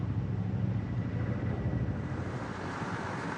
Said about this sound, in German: Hubschrauber fliegen Beton zu den entlegenen Baustellen in den Bergen.